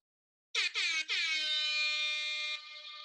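A loud, brassy air horn blasts in two quick short bursts followed by one long sustained blare, the classic hip-hop DJ sound effect, with no talking.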